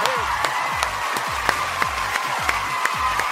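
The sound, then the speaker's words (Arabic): Steady crowd applause for everyone listening to the radio show, with a hiss-like wash of clapping, punctuated by sharp, evenly spaced claps about three times a second, each followed by a low thumping drop. “زقفه لكل مين عم يسمعنا هلا هلا”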